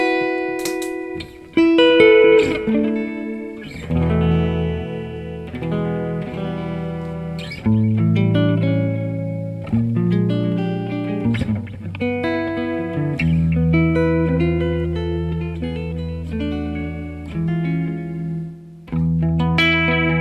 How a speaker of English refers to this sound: was about to go into some blues stuff because part of what makes this jazz, quote unquote, guitar so weird is that it digs in really nicely. But it also, as you saw, feels really warm and open. Yeah, and there's just one pickup